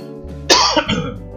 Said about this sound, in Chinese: 但是偶尔还是会咳一下，只是没有之前严重。